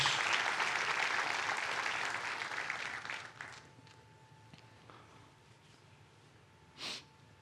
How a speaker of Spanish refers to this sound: Dele un fuerte aplauso.